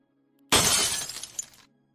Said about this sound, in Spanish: Entonces el vaso reventó ante nuestros ojos, saliendo disparado en todas direcciones trozos de cristales.